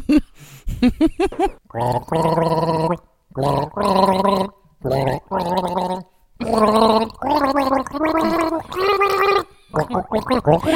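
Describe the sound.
Someone gargles a TV theme tune, the bubbling voice carrying a melody in a series of sustained, pitched phrases separated by short breaths, fairly loud.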